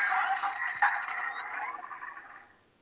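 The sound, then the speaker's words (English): A dry rasping scrape of a piece of headgear sliding shut, ratchety and continuous with a small bump partway, gradually fading out after about two and a half seconds. No voices. “And then when you slide the fucking thing shut, that makes that noise so I can put it on my head and here it goes.”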